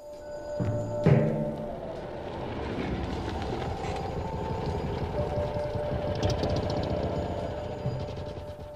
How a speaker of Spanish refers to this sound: Y ahora Hans se hallaba esperando dentro del coche en el puente grande. Eh, no tardó en llegar un automóvil negro que se detuvo tras él.